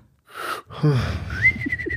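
A breathy backward whistle drawn in on an inhale: a short airy tone, a brief pause, then a longer, steadier high note with a rasp of air around it.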